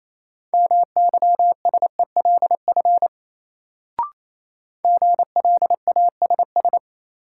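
Morse code word-drill practice, sending sentences from the top 1300 words at a brisk 28 words per minute: a steady mid-pitched tone keyed in quick dots and dashes, in two runs split by a short pause with a single click between them.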